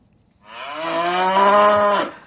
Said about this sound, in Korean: 예, 소 울음소리입니다. 한 번 더요. 이 소리가 일부에 나가는 노래 중간에 나올 거예요.